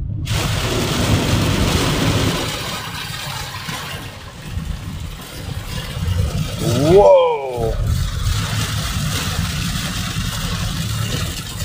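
A night thunderstorm in Austin, Texas, under huge cumulonimbus clouds, with steady, hissing rain and a deep rolling rumble of thunder running throughout. A brief whistling, sweeping sound cuts in near the middle.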